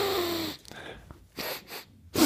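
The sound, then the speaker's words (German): Several short nasal sniffs through a blocked left nostril, with a strained, airy hiss as air is forced through, separated by brief pauses and ending in a sharper intake. “mein linkes, ist mein linkes Loch. Da kommt halt nichts durch.”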